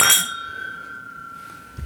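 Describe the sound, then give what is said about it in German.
A single bright clink of a whiskey glass being picked up to smell the whiskey in it, followed by a clear ringing tone that slowly fades over a couple of seconds, with a soft bump at the end. “Dann schnappen wir uns das Glas und sind gespannt, wie er riecht.”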